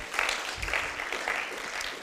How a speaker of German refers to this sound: Danke und Applaus.